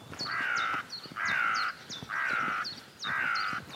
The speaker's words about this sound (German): Über Feldwege, an Weilern vorbei, kleine Landstraßen entlang um mich herum Felder und Vögel. Begleitet mich dieser Rabe da etwa?